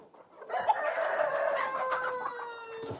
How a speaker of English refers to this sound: You probably might be able to pick up the turkeys that we have here. You hear them right now.